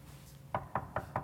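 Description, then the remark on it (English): Four quick, evenly spaced knocks on a wooden door, crisp, sounding alone against a low background hum. “And he's knocking.”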